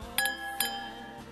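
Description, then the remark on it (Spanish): Glasses clink together in a toast: two bright, ringing chimes about half a second apart, each leaving a clear tone that lingers and fades. No one speaks. “A ellos y a todos los demás que también nos han enviado sus sugerencias, un brindis a su salud con sus bebidas favoritas.”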